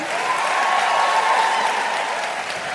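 A large crowd applauds steadily to salute a speaker at the close of an evening event, a dense wash of many hands clapping at once, loud and sustained throughout with no pauses.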